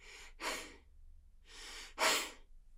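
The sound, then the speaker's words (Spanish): A person imitates a gorilla's heavy breathing, two slow breath cycles each with a softer inhale followed by a louder, forceful breathy exhale, with no talking. “Me lanzó un video de un gorila que me hipnotizó porque se escuchaba la respiración del gorila.”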